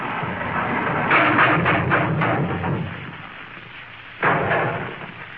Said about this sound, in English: What was that? The left wing fell off. Do we need it? Yes, I'll have to fix it.